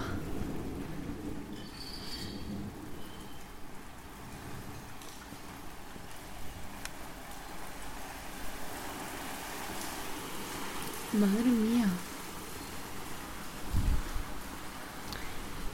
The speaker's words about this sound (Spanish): Hoy hay tormenta.